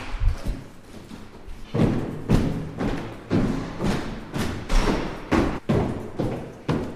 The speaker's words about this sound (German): Also ich bin jetzt mal die Treppe runtergegangen und jetzt bin ich bei einer Türe gelandet.